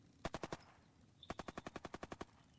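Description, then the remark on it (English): Two rapid bursts of automatic gunfire in a film battle scene, a short volley of about five shots followed by a longer string of a dozen evenly spaced, sharp cracks, loud over a low rumbling background. “Just lots of gunfire.”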